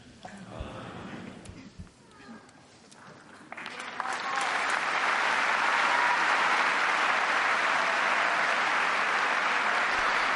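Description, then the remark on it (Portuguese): Applause from a large audience at the Wednesday papal general audience in the Paul VI Hall, marking its conclusion; it swells after a few seconds of quieter murmuring and scattered claps, becoming a steady, loud, dense roar of clapping that holds to the end. “E com esse aplauso, nos encaminhamos para a conclusão da audiência geral desta quarta-feira na Grande Sala.”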